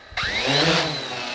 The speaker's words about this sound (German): Und der Forscher stellt diese Drohne jetzt auf den Boden und startet